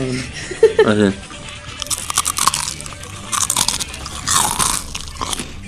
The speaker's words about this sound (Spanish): Haz una SMR de lo que vas a comer.